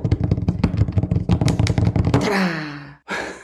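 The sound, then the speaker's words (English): Fast, heavy banging on a table: a rapid run of roughly twenty dull thumps over about two seconds, followed by a drawn-out voiced exhale and a sharp breath. “That's just me banging on the table.”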